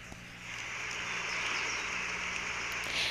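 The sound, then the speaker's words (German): Steady hiss of rain noise played from an iPhone's listening setting in the Control Center, fairly quiet and continuous, with a faint low hum underneath, as if through a small speaker; no one talks. “Und zwar, ähm, ich habe hier ein iPhone und da gibt es eine Einstellung, wo man, ähm, die nennt sich Hören, die gehört zum Kontrollzentrum und da kann man Regenrauschen anhören. Wartet mal, ich kann es euch mal kurz zeigen.”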